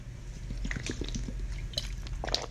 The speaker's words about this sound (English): Now I'm drinking an essentia water. It's so important to hydrate.